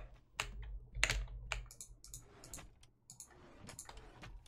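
Rapid, forceful keyboard typing with sharp irregular clacks and a few harder key strikes, fairly loud over a low background hum, no voices.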